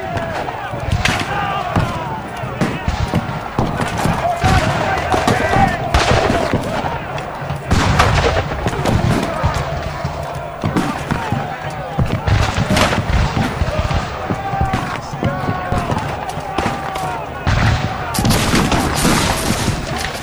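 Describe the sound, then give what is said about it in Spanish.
A chaotic American Civil War battle scene from the 1860s: near-constant crackling gunfire and volleys, punctuated by heavy artillery booms, with shouting voices mixed in throughout about twenty seconds of dense, loud combat. “Ahora en Vestigios de la Historia escuchemos a qué sonaba la guerra en ese entonces.”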